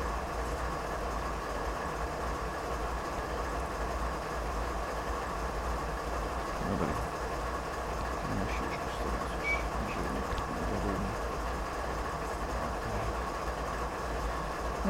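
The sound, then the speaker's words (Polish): A steady rumble of a train rolling along the rails, with a constant low drone and faint metallic rattles throughout, no voices over it. “Dojechałem, słuchajcie, będę kończył, bo mm, prawdopodobnie muszę czekać na przejazd innego pociągu teraz.”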